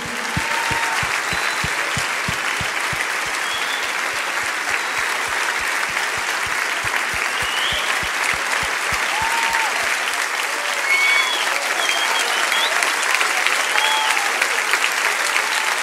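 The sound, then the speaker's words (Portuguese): A church audience applauds people as they step down, steadily and loudly for the whole stretch, dense clapping with a few rhythmic claps in unison at the start and occasional whoops and cheers rising above it. “Vamos aplaudi-los enquanto eles descem, por favor.”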